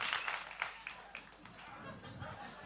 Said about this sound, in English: All right, guys, give me two quick claps if you're ready to receive the word today.